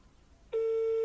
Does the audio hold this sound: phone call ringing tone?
yes